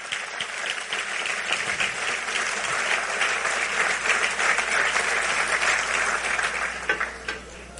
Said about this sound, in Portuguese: É esse Jesus que essa igreja serve. É esse Jesus, é esse Jesus. Se é para aplaudir, aplauda ele mais uma vez.